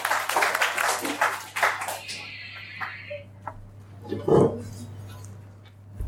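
An audience breaks into applause for a volunteer who is about to share a meaningful game experience. The dense burst of many hands clapping lasts about two seconds before it quickly thins out and fades, leaving a steady low hum underneath.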